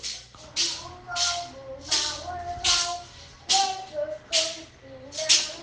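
A young child, a niece, sings a high, wavering tune in the background at home, with a steady rhythm of soft rattling or shaking bursts alongside the singing.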